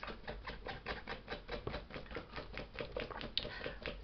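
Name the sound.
dog scratching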